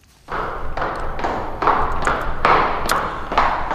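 Footsteps hurrying down a staircase: about eight heavy, thudding steps in a steady rhythm, each ringing with a loud echo that hangs between strides. No voices.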